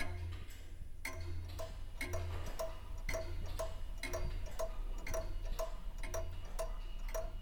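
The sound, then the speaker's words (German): Many clocks tick at once in a clock museum, sharp clicks layered in overlapping steady rhythms, several beats per second, over a low constant hum. No one speaks. “die Museumswärterin, der ich später ebenfalls die Frage danach stelle, ob die Zeit vielleicht langsamer im Uhrenmuseum vergeht, weil man ihr ja ständig beim Verstreichen zuhört, meint trocken, manchmal zahlt sich's schon.”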